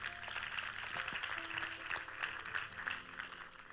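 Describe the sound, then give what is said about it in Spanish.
A church audience applauds the word of God after a Bible reading, a dense, steady patter of many hands clapping, sustained at moderate loudness for a few seconds with no talking. “¿Le puede dar un fuerte aplauso a la palabra de Dios?”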